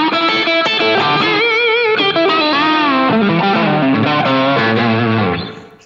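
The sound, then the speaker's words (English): An electric guitar plays loud, bluesy lead phrases through a warm tube screamer overdrive, with bent notes and sustained chords. The playing stays steady, then fades out in the final half second. “And then if you want to throw a tube screamer on to get more of that uh, bluesy.”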